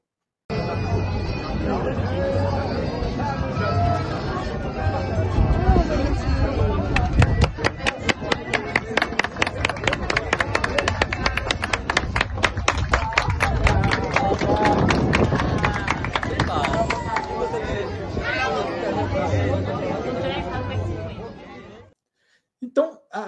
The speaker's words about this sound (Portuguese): E ele, né, ele já é aplaudido quando ele entra no barco para começar o espetáculo. Eu gravei isso também.